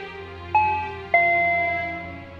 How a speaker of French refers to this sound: Après trois coups de sonnette sans réponse, les deux associés se posent des questions quant à la présence de Mine.